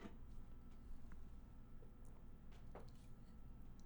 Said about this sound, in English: Sorry, I had to take a drink of water.